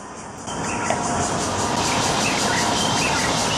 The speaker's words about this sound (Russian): И если не обратишь внимание, просто думаешь, правда, это, наверное, поют какие-то птицы. Но на самом деле это цикада.